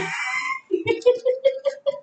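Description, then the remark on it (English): A rooster-like phone alert tone: a short crowing call followed by a quick, steady run of about seven clucking pulses, fairly clear. “Well, that's on your phone, boo.”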